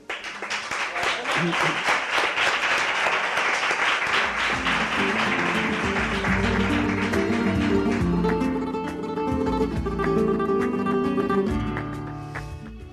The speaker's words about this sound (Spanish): muchas gracias y un fuerte aplauso para Diego